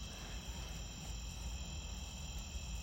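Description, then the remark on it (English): A bug chirps outdoors in a steady, continuous high-pitched trill that never breaks, set over a low background rumble. The sound is fairly quiet and no one speaks. “listen to the sounds what's that sound of that bug that wow it's so cool nature is so cool”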